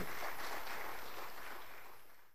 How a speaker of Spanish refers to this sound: Denle un fuerte aplauso a nuestro